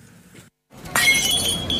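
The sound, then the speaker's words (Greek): A drinking glass shatters with a sudden bright crash, followed by a second of tinkling, ringing shards settling after a brief silence. “Ποτήρι που σπάει!”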